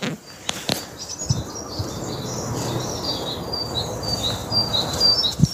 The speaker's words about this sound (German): Das, das, das singen die Vögel. Ist das nicht schön?